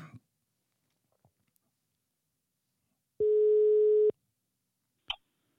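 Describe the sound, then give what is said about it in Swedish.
A single steady telephone ringback tone lasts about a second, clear and fairly loud, with only faint clicks and rustles around it and no talking. “Ja, vi ska ta och ringa upp honom på en gång får vi se vad han vad han ser.”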